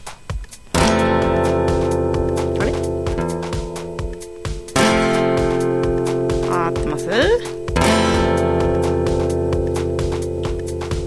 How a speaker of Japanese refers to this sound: まこんな感じの音です、ね、そんな感じですねちょっとギターのチューニングずれてる感じですけどまあ大丈夫そんなことないですさっき合わせたもの